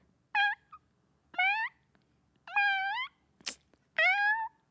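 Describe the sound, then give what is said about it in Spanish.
A voice imitates a cat meowing, four short nasal meows spaced about a second apart, clear, with a brief breathy huff just before the last one. “Y ellos, sí, estábamos pensando en que a lo mejor podía ser un gato.”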